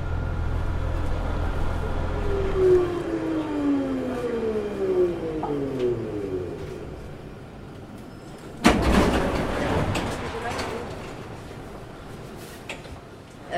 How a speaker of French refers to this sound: Non, on arrive dans 20 minutes là, on est dans le bus.